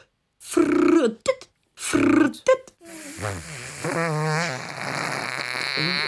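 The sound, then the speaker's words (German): A voice imitates a monster's flatulence: two loud, buzzy blasts, then a longer wobbling, gurgling rumble that trails on for several seconds. “Ist, äh, so hört sich's an, wenn wir äh, gewisse Speisen zu uns nehmen.”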